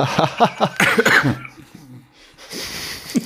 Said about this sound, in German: Oh, man merkt, ich huste wirklich noch. Ne? Es ist so, als würde dir einer mit der Schneeschaufel mhm. einmal so in die Lungen stechen.